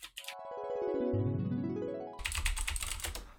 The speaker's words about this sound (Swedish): Eh, mitt tangentbord är ju helt galet i och för sig så det med det här klickety klackety. Det, det, är går, galet, det är ja. galet faktiskt. jag kan skriva lite här bara för att...